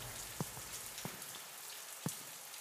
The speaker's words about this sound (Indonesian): Jalan dia pelan-pelan, hingga pas udah di depan pintu dia dengar. Loh kok kayak ada suara gemericik air di sana?